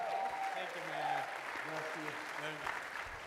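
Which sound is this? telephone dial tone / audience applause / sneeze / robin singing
audience applause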